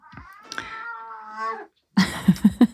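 A cat lets out a long, wavering meow, then after a short pause gives four quick, fairly loud chirping meows in a row, with no talking.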